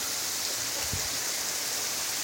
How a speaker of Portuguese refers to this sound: Está vindo tudo para cá, água.